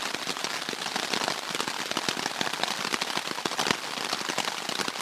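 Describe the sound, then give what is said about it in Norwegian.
Steady rain pattering, a dense hiss of countless drops with sharper taps scattered irregularly on a surface, holding an even loudness throughout and no voices. “Jeg vet ikke, jeg, Dere hører sikkert det regner.”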